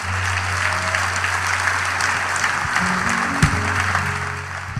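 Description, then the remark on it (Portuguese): Steady, dense applause from a church audience for a pastor, many hands clapping continuously at an even loudness throughout, with a low hum underneath and no voices standing out. “Uma forte salva de palmas também para a pastora”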